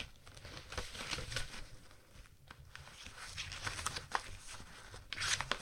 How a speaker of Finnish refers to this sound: Sitten oli vielä yksi, mä täältä pläräilen ja kahistelen näitä papereita.